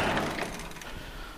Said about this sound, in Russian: А для того, чтобы пойти в склад, нужно открыть вот эту вот дверь.